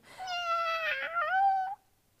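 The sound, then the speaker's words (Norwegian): A single drawn-out meow from the neighbour's cat, fairly loud, wavering in pitch for over a second before cutting off, with no voices around it. “Eh, jeg har fått besøk av nabopusen.”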